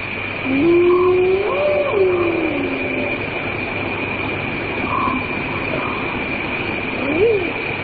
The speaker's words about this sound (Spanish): Esta sería la hiena, un animal con muy mala fama dentro y fuera de África, aproximándose a un campamento con nuestra hoguera como estamos ahora.